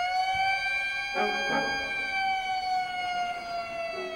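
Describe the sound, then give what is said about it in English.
A motor cop's police siren wails steadily and loudly as a speeding driver is pulled over, its high tone sliding slowly downward, with a couple of brief rumbling bursts of traffic noise beneath it and no one speaking. “And suddenly a motor cop enters because she's been speeding meow, meow, and there's a blue light behind me, and I went, dang, speeding.”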